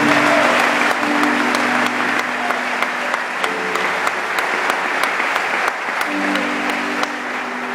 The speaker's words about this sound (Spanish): Demos un fuerte aplauso Señor.